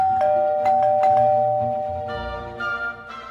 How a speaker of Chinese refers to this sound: 这时候门铃连响了三声。